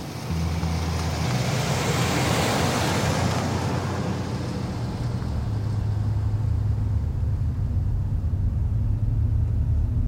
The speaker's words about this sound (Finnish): Olen päässyt ohjaamaan ihmisten suosima kulkuneuvoa, autoa auton ohjaaminen on hyvin erilaista kuin sen kulkuneuvon, jolla tulin tänne.